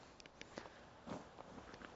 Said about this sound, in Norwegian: 165 skritt. Gode skritt. Det er 160 meter ca. herifra til butikkskiltet.